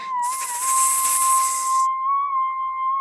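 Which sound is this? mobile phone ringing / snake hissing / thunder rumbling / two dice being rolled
snake hissing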